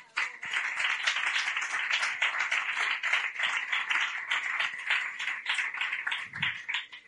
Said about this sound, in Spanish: Un aplauso, por favor.